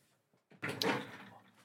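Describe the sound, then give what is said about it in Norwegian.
A drawer is opened to check what is inside: a rough scraping rush that swells quickly and trails off over about a second, following a couple of faint knocks. “Du har crack i har du crack, har du crack i, i, skuffen?”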